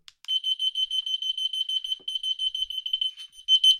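A loud, shrill electronic alarm from a receiver, set off by pressing the third button, beeps in rapid repeated pulses, a steady high-pitched tone chopped into quick bursts with no talking.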